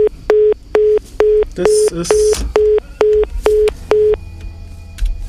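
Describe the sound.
A steady string of about ten short, evenly spaced beeps from a telephone line, like a busy signal, on a caller's line into a radio studio whose phone was not configured correctly, with a brief spoken phrase cutting in partway through before the tone stops.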